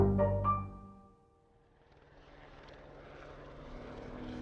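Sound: helicopter flying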